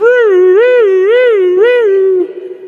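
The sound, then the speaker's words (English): A single voice imitates the siren of a fire department truck heard in the distance, coming to a house where the fire alarm went off, holding one loud, steady tone that wavers up and down in about four even cycles over two seconds before breaking off. “And so in front of our driveway comes the fire department”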